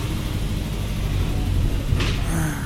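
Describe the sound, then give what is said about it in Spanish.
A steady low engine rumble fills the interior of a moving bus, constant and fairly loud, with a brief hissy burst near the end like air brakes or a door. “Yo creo que ya el ruido debe ser mucho mayor, así que mejor me despido ahora”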